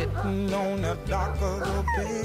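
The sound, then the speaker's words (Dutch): A dog whimpers and yips in high, wavering, whiny tones, fairly loud, continuing for a couple of seconds over a steady low droning backing. “Je gaat toch niet op de hond zitten?”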